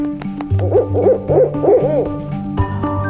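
An owl hoots four times in a quick, even series, each call a soft rising-and-falling mid-pitched note, over a steady low musical drone that continues after the hoots stop.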